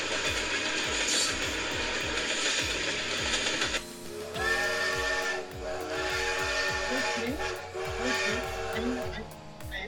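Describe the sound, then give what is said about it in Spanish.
Steady mechanical rattling and rhythmic clunking from a moving train, heard from on board, with the train's high, squealing whistle sounding over the clatter partway through. “En este momento ya estamos subidos en el tren, pero vamos a hacer otra vez la caracterización.”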